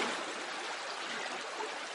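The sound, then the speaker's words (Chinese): A steady, continuous trickle of a small stream, a bright rushing wash of water with no pauses or distinct drips, holding an even level throughout with no voices. “如果我们把很多小水滴汇集在一起，它就是一个小溪，小溪还可以流向大海，”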